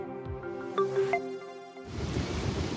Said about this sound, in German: Ich stehe hier im rheinischen Braunkohlerevier in Nordrhein-Westfalen. Es ist kalt, nass, sehr windig und ich stehe mit den Füßen im Schlamm.